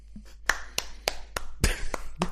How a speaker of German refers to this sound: applaudierst tatsächlich.